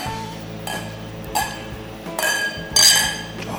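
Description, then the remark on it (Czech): Several beer glasses holding a strong 9% sour cherry beer clink together in a toast, a few bright, ringing knocks spread over a few seconds, with a low background hum underneath and no talking. “Tak na zdraví.”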